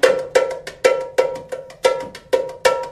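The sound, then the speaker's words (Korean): A tamborim, a small, tight frame drum, is struck in a steady rhythm, seven sharp, ringing hits with quick decays, played clearly with no voices. “뭐 이런 식으로 치는 땀버링이라는 악기입니다.”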